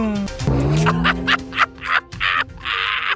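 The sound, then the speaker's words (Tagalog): Racing cars roar past in quick succession on a racetrack, engines whining with a falling pitch, broken by short bursts of tire squeal and skidding. Loud, with no talking. “Parang ipinagpapalit tayo ng Pangulo sa mga karera ng Jeep Jeep ah. ha. Yung mga ngweng ngweng.”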